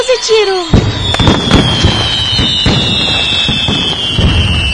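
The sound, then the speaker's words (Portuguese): A fireworks rocket: a rising whistle climbs steeply, then a string of loud, rapid firework bangs and crackles bursts out in quick succession, sustained, like a rocket barrage going off. “Uma salva de palmas. Um rojão”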